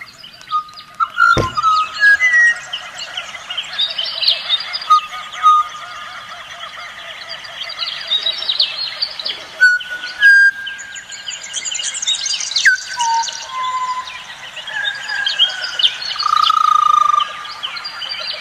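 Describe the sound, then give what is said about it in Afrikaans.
A butcherbird sings a run of clear, fluting whistled phrases that rise and fall in pitch, layered over a dense background chorus of chirps and trills that continues throughout. “presies soos Bach se Das Wohl tempereerde klavier is hierdie Butcher Bird besig om te komponeer.”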